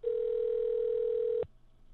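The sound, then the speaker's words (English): One steady electronic ringing tone from an outgoing phone call, a loud, unbroken hum lasting about a second and a half before cutting off into faint background noise. “Everyone shut up. It's ringing.”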